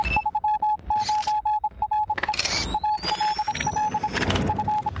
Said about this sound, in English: Beep, beep, beep,